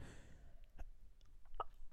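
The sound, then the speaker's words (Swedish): An abrupt hiccup pops out sharply, with a softer catch just before it, against faint background noise and no talking. “Oh shit vilken hicka den fuckade ur.”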